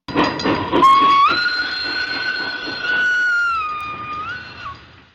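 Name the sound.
train passing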